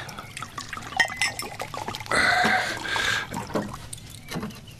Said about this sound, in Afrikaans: Hmm, kom ons drink daarop. Skink vir ons nog wyn.